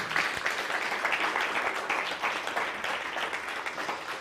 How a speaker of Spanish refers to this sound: Dicen aquí, nosotros en España ya hemos terminado, Baruch Hashem. O sea que aplausos a los de España que ya terminaron.